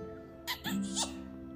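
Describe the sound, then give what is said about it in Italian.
A loud, squeaky kiss smack: a quick pair of wet smacks followed by a brief high squeal, close up and on its own with no talking. “Stava giusto per farne un sol boccone quando lei si svegliò e gli scoccò un bacio gigante.”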